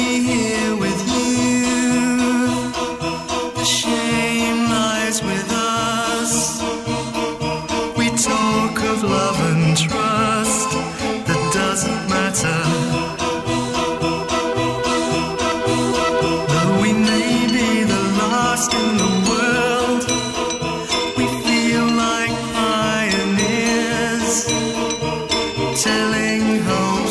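A synth-pop song plays continuously at a steady, fairly loud level, with a pulsing electronic beat and layered melodic synth lines filling the whole stretch.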